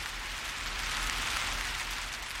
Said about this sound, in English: Outside, the Florida snow, otherwise known as rain, was beginning to fall from the sky and would continue well into the night.